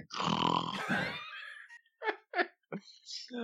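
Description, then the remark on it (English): A voice does an exaggerated, raspy deep breath, one long heaving huff, followed by several short, sharp breathy gasps in quick succession, done as Police Chief Wiggum showing his asthma is gone. “Police Chief Wiggum, acne remains, but asthma disappearing, my asthma's gone. Listen to me breathe.”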